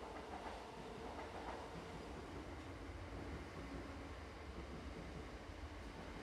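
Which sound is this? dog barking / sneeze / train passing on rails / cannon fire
train passing on rails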